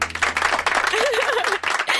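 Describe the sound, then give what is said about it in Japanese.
A burst of clapping right after a toast, dense and steady for about two seconds, with a brief wavering voice-like tone rising through the middle and a low hum underneath. “拍手が来た”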